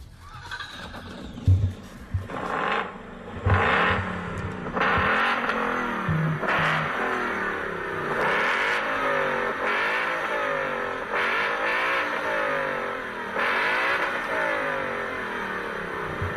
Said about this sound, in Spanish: tiene un gran sonido porque tiene cuatro salidas de escape eh, que van conectadas a este motor que le llaman Coyote, es el de Ford